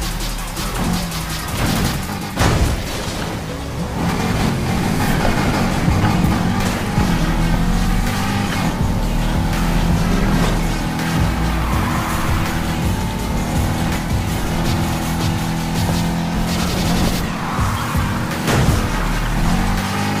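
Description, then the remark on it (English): Racing video game car engines roar steadily and loudly throughout, with revving pitch shifts and occasional tire screeches over a constant mechanical drone, no voices. “Let's enjoy this race, though.”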